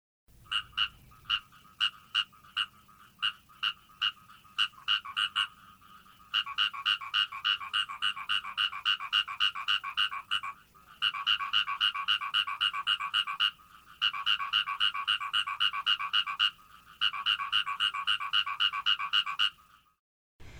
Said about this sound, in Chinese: 公的泽蛙会说“咕咕咕”。意思是我爱你。那如果旁边会有竞争者的时候啊，他们会说“果果果果”或是“国鸡国鸡”，就是对着雌蛙说“我比他更爱你”的意思哦，是不是很有意思啊？那我们接下来就来听听看泽蛙的叫声吧。